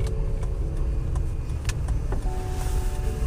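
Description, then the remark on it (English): Steady, loud low rumble of road and engine noise inside a moving car, with small clicks and rattles ticking through it at irregular intervals and no voices. “I'm driving right now.”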